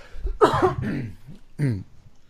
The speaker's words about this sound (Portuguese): Acabei de voltar, por isso que tô tossindo. É um monte de cabelo aqui.